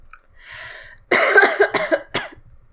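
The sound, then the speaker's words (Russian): A harsh, hacking coughing fit: a soft breathy intake, then a burst of several rough, rapid coughs tapering into one last sharp cough, loud and alone with no talking. “вылетите свой уже туберкулез, пожалуйста.”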